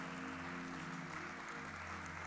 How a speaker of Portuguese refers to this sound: Uau! Aplauda, ele merece.